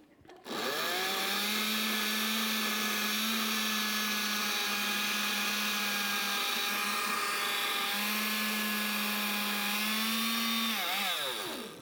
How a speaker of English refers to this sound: This blender may or may not break.